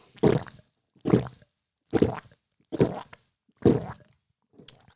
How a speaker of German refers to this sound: Und ja, er schluckt wirklich so laut.